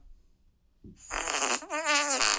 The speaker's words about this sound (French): Puis, euh, il y a beaucoup de pets tout le long du film.